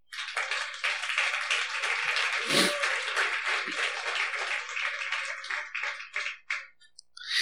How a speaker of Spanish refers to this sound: ¿Podemos darle un fuerte aplauso al Señor?